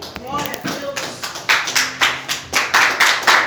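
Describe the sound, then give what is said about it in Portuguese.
An audience at a Friday church service claps together in a steady, rhythmic beat, loud, applauding the Lord, following a brief bit of speech at the start. “Tome sua senta aplaudindo o Senhor.”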